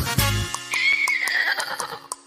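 A horse on a farm whinnies loudly, a long shrill neigh that wavers and slowly falls in pitch, with a low snort at the start and no voices.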